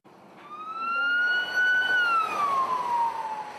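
An ambulance siren in Romania, during a heat wave, on an ambulance taking care of people with heatstroke, wails loudly, its pitch sliding slowly upward and then gliding back down in one long sweep, over a steady rumble of street traffic. No one speaks.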